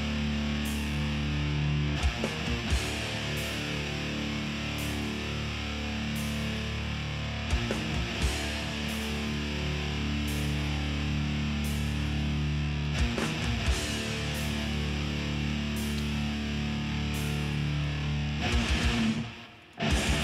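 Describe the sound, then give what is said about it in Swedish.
A loud, distorted guitar riff plays on its own, a thick sustained tone with sharp accents that return every few seconds in a repeating cycle, cutting off abruptly at the end. “bra riff.”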